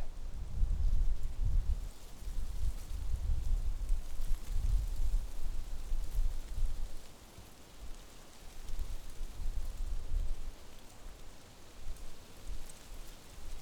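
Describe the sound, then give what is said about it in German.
European beech (copper beech) and oak leaves in a Central European deciduous forest rustle in a steady, hissing wash, swelling and easing with gusts of wind that add a soft low rumble; no voices are heard. “Dort lauschen wir der Königin und dem König der Wälder, der Rotbuche und der Eiche.”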